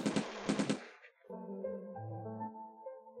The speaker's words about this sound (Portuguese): Há uma comoção entre a família e são feitos disparos.